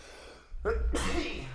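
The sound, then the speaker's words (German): A single sharp sneeze: a quick inhaled buildup followed by a loud explosive burst that trails off, heard on its own without talking. “Oi, Gesundheit.”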